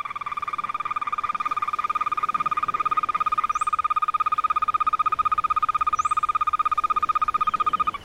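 An amphibian gives a loud, unbroken, rapidly pulsing trill that drones on steadily for the whole stretch, with a couple of faint high chirps in the background and no voices.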